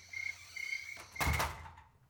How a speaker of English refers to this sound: shut the door? You're letting all the bugs inside.